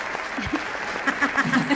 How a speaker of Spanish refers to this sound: el mismo aplauso siempre. no, creo que cambia con, con 30 minutos de aplausos.